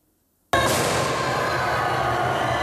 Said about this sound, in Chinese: 冲破黄线，列车进站后，月台爆出尖叫与欢呼声，民众纷纷拿起手机记录美国百年来第一条民营高速铁路开通的历史一刻。